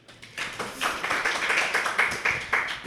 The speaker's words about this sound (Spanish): Eh, un aplauso, por favor,